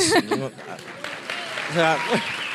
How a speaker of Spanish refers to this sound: un aplauso, un aplauso.